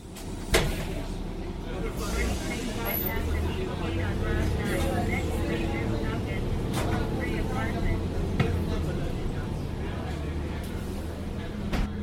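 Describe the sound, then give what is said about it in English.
Inside a downtown Bloomington public city bus: a steady engine rumble fills the ride, with occasional clunks and rattles and indistinct voices murmuring in the background. “found the sounds, stories, and voices of the downtown Bloomington public bus system.”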